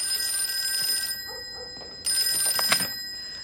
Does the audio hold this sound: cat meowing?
no